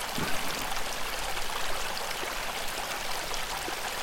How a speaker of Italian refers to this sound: E starei ore qui eh, ad ascoltare l'acqua.